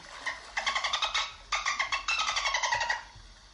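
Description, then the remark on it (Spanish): Dolphin calls from a recording: three quick bursts of rapid, high-pitched squeaky chirps and buzzy pulses, fairly loud, with no talking. “eso de los delfines mm, voy a poner el sonido otra vez, me gusta, perdón.”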